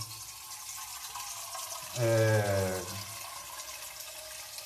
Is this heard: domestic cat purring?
no